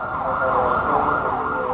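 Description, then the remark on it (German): An emergency vehicle siren wails steadily in Cairo, its pitch sweeping up and down in repeated cycles, loud over a dense rumble of city traffic. “Sirenen, Gebetsrufe, infernalischer Verkehr und absolutes Chaos.”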